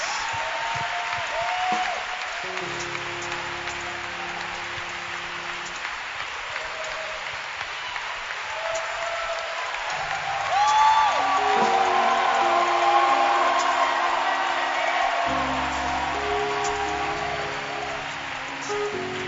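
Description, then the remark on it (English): An audience claps steadily for about twenty seconds to thank God for the testimonies shared, a dense, sustained patter that swells louder midway, with occasional faint cheers and low sustained musical tones underneath. “And help me thank God with a hand clap for the powerful testimonies we've enjoyed today. Clap your hands for Jesus.”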